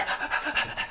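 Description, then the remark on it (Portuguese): A person imitates an anxious dog that never stops panting: quick, breathy huffs in a steady, rapid rhythm, about five in a second, fairly loud, with no talking. “o cachorro não para nunca, sempre assim, ó.”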